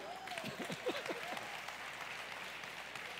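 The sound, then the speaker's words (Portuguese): A church audience claps in praise of God, a steady, dense, continuous wash of applause at even volume throughout, with a few brief vocal cries rising above it near the start. “Aplauda o Senhor, aleluia.”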